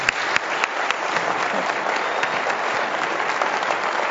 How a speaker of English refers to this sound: And uh, if we could get a round of applause for Kevin, Mark, and Paul one more time.